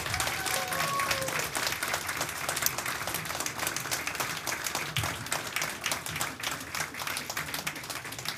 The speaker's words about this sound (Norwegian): Eh, men da tror jeg faktisk at vi må si takk til dette herlige tverrfaglige panelet. Tusen hjertelig takk. Dere har holdt ut i to timer. Det er fantastisk. Applaus.